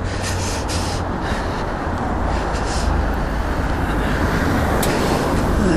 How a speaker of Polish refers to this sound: Dobra, tutaj nic nie jedzie, to znaczy jadą samochody, ale ja jestem obok.